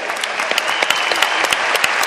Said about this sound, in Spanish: Un aplauso